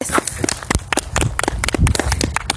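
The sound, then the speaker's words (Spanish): A crowd claps steadily, many hands overlapping into a dense, uneven patter of sharp slaps that stays fairly loud throughout, with no voices; the audience is applauding at a performer's request in honour of the performer's mother. “Público, me dan un aplauso para mi mamá.”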